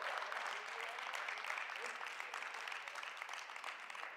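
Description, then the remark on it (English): A church audience applauds steadily during a sermon, many hands clapping in a dense, unbroken wash of sound that holds at an even level for several seconds, with no one speaking over it. “Y'all better clap the same way.”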